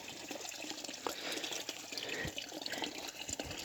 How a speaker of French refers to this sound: et un tuyau d'arrosage qui coule.